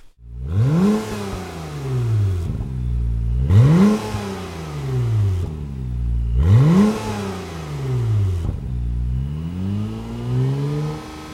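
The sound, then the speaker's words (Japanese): A Honda NSX sports car engine revs up hard three times in a row, each rise climbing steeply in pitch before dropping back, then a fourth softer swell; loud, no voices. “まあ、実際に採用されたんです NSX のエンジンが最も体内の周圧に近いということが分かりまして、とっても意外な結果でした。”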